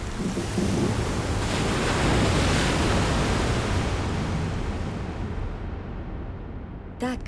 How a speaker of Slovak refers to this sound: Potom sa odrazu nebesá zatemnili, zdvihol sa silný vietor a začali sa vody valiť na zem.